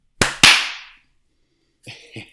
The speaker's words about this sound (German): Top. das war ein lauter Klatsch. Gewesen.